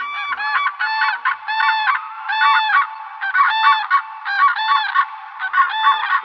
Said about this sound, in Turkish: Turnalar dansları ve şarkı söylemeleriyle de tüm kuşlar arasında ilk sıradalar.